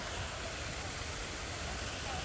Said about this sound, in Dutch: Alleen hier hebben ze dan wel een hele mooie berg eromheen gebouwd. En extreme windeffecten, hoor je ze?